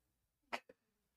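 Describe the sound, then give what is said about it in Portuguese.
A single quick sneeze bursts out sharply, then a brief catch of breath right after, in an otherwise quiet moment with no one talking. “Saúde. Saúde.”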